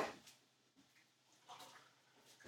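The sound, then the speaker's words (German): Water splashes and trickles into a glass of juice in a few short, uneven bursts, fairly quiet, with brief pauses between pours and no voices. “jetzt haben wir wieder unser Saftladen hier aufgefüllt, würde ich mal sagen.”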